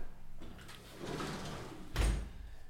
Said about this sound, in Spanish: Primero voy a cerrar un poco acá la ventana porque creo que va a entrar ruido de afuera.